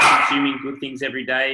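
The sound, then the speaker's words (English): A dog barks in the background while a man keeps talking over it, the barking mixed beneath his steady speech. “that's the dog going off.”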